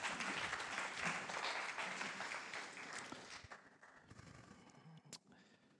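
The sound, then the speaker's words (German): An audience applauds a man who has just spoken, with dense, steady clapping that gradually thins and fades toward the end, leaving a few scattered claps and room noise. “ich sage dir schon mal einfach danke für deine Offenheit, für die Ehrlichkeit, Bereitschaft und äh, bitte euch einfach einen Applaus.”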